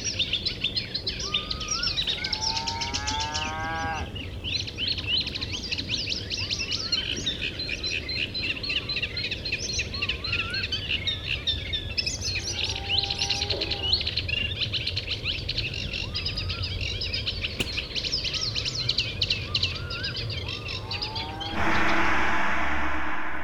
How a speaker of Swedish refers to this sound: Rörsångaren är en varmt ljusbrunfärgad sångare. Den har vandrat in i Mälardalen först i början av 1900-talet och häckade vid Gällstaviken först 1918.